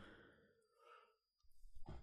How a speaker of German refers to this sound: Sorry, ich muss eben gähnen und ich wollte es mal drücken.